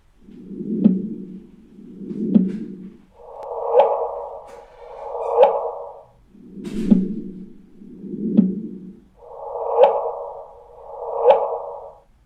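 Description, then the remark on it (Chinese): Gravitational wave signals from black hole and neutron star mergers turned into sound: eight swelling hums, each building to a quick upward chirp, arriving at a steady pace in pairs that alternate between a low pitch and a higher one, with no talking. “所以呢，引力波还真的是能够转换成声音的。我们可以一起来听一下。”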